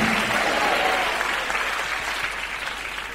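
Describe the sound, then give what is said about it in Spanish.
An audience at a night church service breaks into sustained applause for God, a dense wash of many hands clapping at steady loudness that eases only slightly over a few seconds, with no voices standing out. “Dele ese aplauso al Rey de Reyes y Señor de Señores.”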